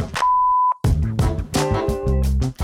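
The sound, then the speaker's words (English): A single steady, mid-pitched electronic beep, a voicemail recording tone for leaving feedback, holds for about half a second before fuller, louder harmonic sounds take over. “If you have some feedback for us, leave it after the tone.”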